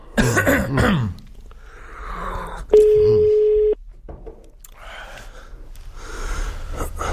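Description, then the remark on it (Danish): A single steady ringback tone sounds over a phone line for about a second during a call to a band's lead singer, fairly loud, surrounded by soft breaths, coughs and throat noises at the microphone. “Man kunne sgu da godt lige tage telefonen.”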